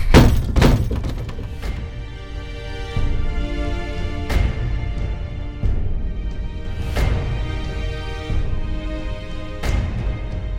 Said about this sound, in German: Ich hau einfach dreimal mit dem Hammer gegen diese große, gegen dieses große Tor.